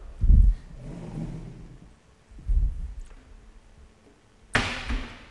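Chalk knocking and scraping against a blackboard in three separate strokes, two dull taps followed by a sharper, brighter scratch, with no one talking; someone drawing on the blackboard to illustrate convolution (linear filtering).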